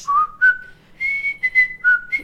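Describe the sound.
A person whistles a short, bright tune imitating a bird that whistled a TV theme song at a man leaving his house, clear sustained notes stepping up and down in a quick melodic phrase, fairly loud with no talking.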